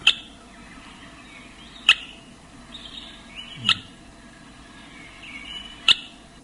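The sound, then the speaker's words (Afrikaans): An African goshawk's sharp, clicking calls like pebbles knocked together, four distinct taps spaced about two seconds apart, clear against a soft hiss of background ambience with no voices. “is die Afrika sperwer, daai sagte jagter wat byna soos twee rivierklippies klink wat teen mekaar kap. Die enigste teken dat hierdie voël in jou omgewing is, is vroegoggend en laatmiddag hierdie vreemde geluid as hy baie hoog bo sy territorium vlieg.”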